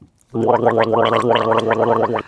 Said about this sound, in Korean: 점심 먹고 가글 한번 하죠. 치카치카 하시는 분도 많고. 이 가글 소리가 일부에 나가는 뭐 가요인지 팝인지는 모르겠습니다.